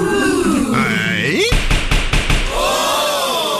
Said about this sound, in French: Le marteau du juge, le marteau de la justice.